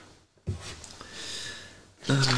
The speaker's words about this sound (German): PUBG, ihr hört mich wieder blättern. Ich habe es mir rausgesucht, was es heißt.